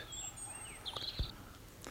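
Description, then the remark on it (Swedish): A European robin singing repeatedly in the foreground and, farther away, three thrushes (redwing, blackbird and song thrush): thin, high whistled notes and a short, bright warbling trill over a soft low rumble, with no voices. “Det var det där, eh, i förgrunden sjöng flera gånger en rödhake, och sen längre borta så var det tre trastar, Rödvingetrast, koltrast och taltrast.”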